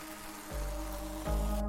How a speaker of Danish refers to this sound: Så bliver der lige skænket her.